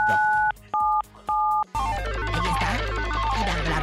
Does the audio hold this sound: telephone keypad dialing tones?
yes